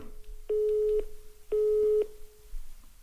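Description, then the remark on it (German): A telephone busy signal on a call to a mobile phone, played on speakerphone: two steady, evenly spaced tone bursts, each about half a second long with short gaps, slightly muffled, with no voices. “Das war ein direktes Besetzt.”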